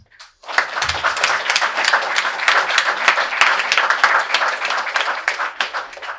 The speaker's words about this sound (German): Also nochmal vielen Dank an alle, die hier sind, die vortragen, die moderieren und auch an alle, die hier zum Zuschauen gekommen sind. Ich finde, das hat noch einen kleinen Applaus verdient.